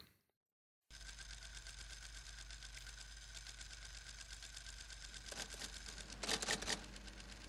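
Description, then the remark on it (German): A man types on a typewriter in a fast, steady stream of key strikes over a mechanical hum, growing louder near the end with a dense burst of clacks. No voices. “Er tippt was ein auf einer Schreibmaschine.”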